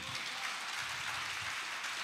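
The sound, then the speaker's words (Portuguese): A crowd gives applause to the Lord during a sermon, clapping together in steady, dense applause that holds at an even level throughout, with no voices breaking through the sound of many hands. “Você pode dar um aplauso ao Senhor por isso, meu irmão?”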